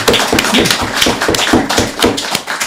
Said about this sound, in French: je voudrais d'abord qu'on les applaudisse pour leur organisation,